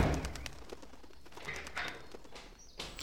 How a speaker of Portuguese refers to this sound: Tem mais uma desgraça de pombo lá no quarto. E eu não vou ficar nessa casa com esse monte de capeta entrando pela janela toda hora, não.